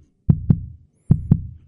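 A heartbeat thumps twice in quick lub-dub pairs, then pauses and repeats, deep with a soft low rumble trailing each pair; no voices.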